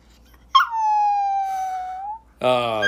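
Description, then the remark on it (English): A chihuahua sitting in a person's lap lets out one drawn-out, high-pitched howl on request, the tone steady then sliding slightly lower before it stops; a person starts talking right after. “My chihuahua who's sitting in my lap wants to do one thing for you.”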